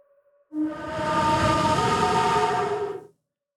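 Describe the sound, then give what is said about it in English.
A wood-burned bamboo flute blown on its lowest note holds one steady, breathy tone for about two and a half seconds, airy and hollow, played alone and fairly loud before cutting off. “This is actually a, a bamboo flute that's been wood burned, and it has this almost like a grave, like a haunted sound.”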